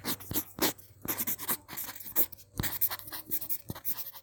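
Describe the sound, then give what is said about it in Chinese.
A pencil scratches across paper in quick, irregular strokes while someone studies or works in the afternoon, with brief pauses and a few sharper taps between bursts of dry, raspy scribbling. No one speaks. “下午的话呢，就我比较多，可能都会在上课、读书，或者是可能工作这样子，所以一般来说就会有一些翻书的声音，或者是键盘打字，或者是铅笔书写的声音。”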